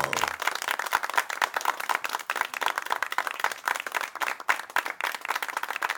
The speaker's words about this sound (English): So a little gloved applause for you all.